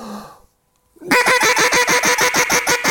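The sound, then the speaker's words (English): A duck call blows a fast, steady quacking cadence of loud, nasal quacks, roughly a dozen evenly spaced notes, following a short breathy sound and a brief pause. “And it sounds like a continuous conversation between those ducks on the water, telling those ducks in the air, what's the deal?”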